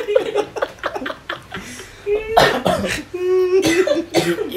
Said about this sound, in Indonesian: Kakek sepertinya batuk berdarah, Kek.